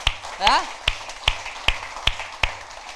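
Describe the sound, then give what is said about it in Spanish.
A church audience claps together in a steady rhythm as applause to God, about seven sharp, evenly spaced beats, with a brief rising vocal whoop near the start. “Dale un aplauso a Dios.”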